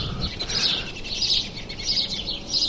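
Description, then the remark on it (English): Birds sing outdoors in a backyard at 5:30 in the morning on May 1st, about 25 minutes before sunrise, with a high, bright song repeating in about four regular phrases over a soft, steady background hum, nothing else intruding. “And I am just sitting in my backyard with a coffee listening to the birds.”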